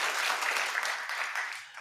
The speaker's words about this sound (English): oh you know her clap if you know her okay good good good good